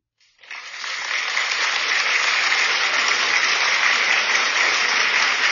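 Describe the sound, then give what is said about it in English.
A clapping sound effect played from an app: applause starts abruptly and quickly swells into a dense, steady wash of many hands clapping, holding at a constant level with no voices over it. “How about we get some, uh, how about we get some clapping up in here?”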